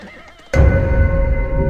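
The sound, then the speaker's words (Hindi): After a brief hush, a horse suddenly lets out a loud, close neigh, a sustained, strained whinny lasting over a second, as the horse approaches. No one speaks. “घोड़े की आवाज़ हम जरा सोच में पड़ गए यह आवाज़ कहाँ से आ रही है और वह ध्वनि भी काफ़ी तीव्र थी और वह हमारे करीब ही आ रही थी”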